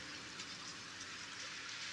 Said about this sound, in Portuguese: E deu muita chuva, muito vento. E nesse momento estou apreciando aqui essa chuva, a solitude né?